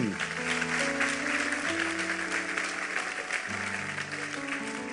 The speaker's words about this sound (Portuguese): Pode aplaudir a ele.